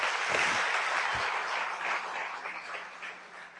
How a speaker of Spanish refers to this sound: Felicitaciones. Desen un fuertísimo aplauso, ustedes se lo merecen.